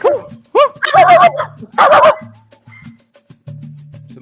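A dog barks in a quick burst of sharp, high yips and barks, several in a row, followed by a couple of louder barks and then quieter low sounds.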